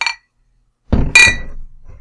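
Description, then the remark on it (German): Glasses clink together in a toast: a dull knock, then a bright, ringing chime, with a quicker faint clink just before. No one speaks. “Erstmal natürlich das Wichtigste, wie immer, Prost.”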